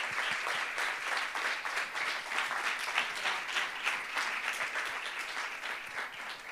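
Sustained audience applause at a talk event, a dense wash of many hands clapping at steady loudness throughout, with no voices rising above it.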